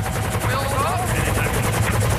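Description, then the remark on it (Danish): A helicopter hovers in place during a bungee jump streamed live on YouTube, its rotor chopping in a steady, rapid pulse with a deep engine drone, loud and continuous throughout. “Helikopteren hænger der.”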